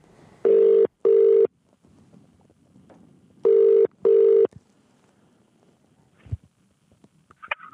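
An outgoing phone call to Robin Koch: the ringing tone sounds twice, each a loud double buzz-buzz, separated by a pause, followed by quiet line noise and a soft click as the call connects.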